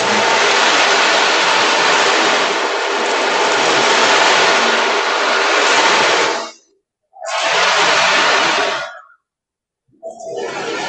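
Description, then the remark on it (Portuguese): An ocean drum imitates rolling surf: a loud rushing hiss sustained for several seconds, then two shorter surges broken by brief silences, with no voices. “Por exemplo, você pega aqui um, esse aqui, o tambor oceânico, né? que faz o som do mar.”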